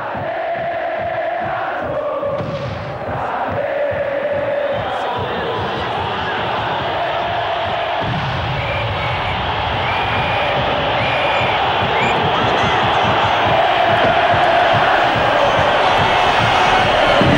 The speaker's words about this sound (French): Il ne sait plus que dire. Il regarde les gens qui l'acclament.